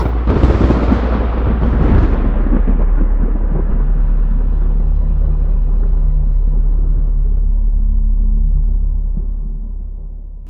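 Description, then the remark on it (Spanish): A loud clap of thunder opens with a harsh, broad burst, then settles into a long, deep rolling rumble that slowly fades. No voices are heard. “otro más causaba el trueno, etcétera”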